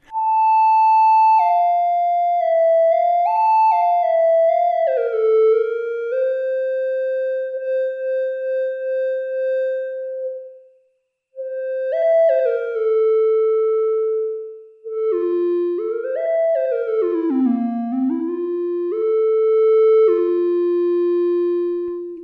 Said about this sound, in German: So genug Theremin Solo.